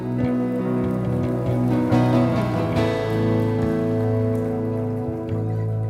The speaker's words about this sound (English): Come on, give the Lord a clap and a shout there for a minute.